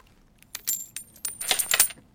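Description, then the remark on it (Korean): Several coins drop and clatter onto a hard surface, a quick run of bright metallic clinks and rings, with no voices. “동전 소리예요.”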